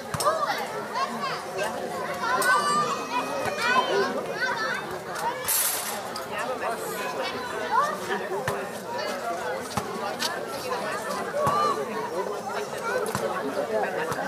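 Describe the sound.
Summer evening city ambience in Berlin: a steady bed of crowd chatter and overlapping voices, with children's shouts and occasional sharp clatters rising above the continuous murmur.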